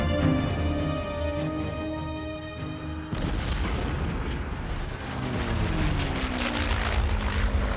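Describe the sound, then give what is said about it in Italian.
An early propeller airplane, the Wright brothers' Flyer, drones steadily, then its engine turns to a rough, loud roar with a falling pitch as it passes by. No one speaks. “Si trattava del Flyer, il primo aereo della storia.”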